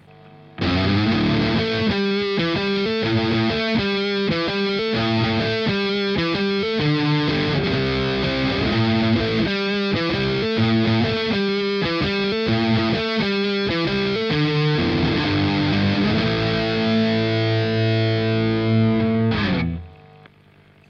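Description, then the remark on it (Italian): A heavily distorted electric guitar played through a Heavy Crunch amp preset for hard rock rhythm chugs out rhythm riffs with thick crunch, loud, ending on a sustained chord that rings out and cuts off. “Heavy Crunch, ok, sento già un po' di, di casino in più.”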